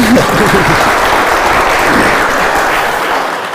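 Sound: audience applause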